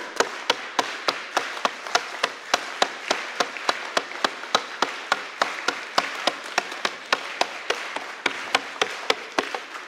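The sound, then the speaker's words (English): A large crowd claps in unison at a fast, steady tempo of roughly four claps per second, each sharp crack slightly blurred by many hands, continuing evenly with no talking. “how did I get 250 people to actually clap rhythmically all together?”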